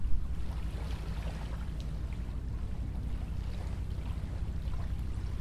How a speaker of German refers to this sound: Ich weiß nicht, ob ihr es hören könnt, aber das Wasser plätschert, die Wellen, äh, die winzig kleinen Wellen äh, laufen hier am Ufer auf. Ja. Wir sind an einem der schönsten Orte Kölns, würde ich mal behaupten.